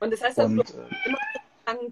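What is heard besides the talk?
cat meowing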